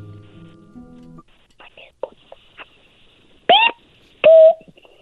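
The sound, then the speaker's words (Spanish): A child's voice imitates a chick with two loud, high-pitched peeps a moment apart, after a stretch of soft, breathy whispering and murmuring. “A ver, hazle como un pollito.”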